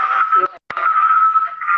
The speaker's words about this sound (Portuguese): Da microfonia.